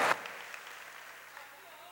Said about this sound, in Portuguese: Quantos querem louvar ao Senhor? Aplauda ele bem forte, diga aleluia.